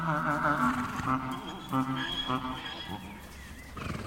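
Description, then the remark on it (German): A mule, a cross of a horse mare and a male donkey, having moved away from its herd, gives a long, mournful braying cry from the other end of a gravel yard, a series of strained, wavering heaves rising and falling over several seconds, fairly loud against faint outdoor background noise. “Ein Ausgestoßener entfernt sich von der Herde und stößt vom anderen Ende des Kiesplatzes einen wehmütigen Schrei aus.”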